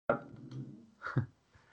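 A dog gives a drawn-out bark followed by a sharper, shorter bark a second later, both fairly soft, with no one speaking.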